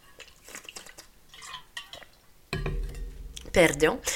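Quiet clinks of a glass being handled, then a short slurping small sip of water and a soft exhale, with no one talking.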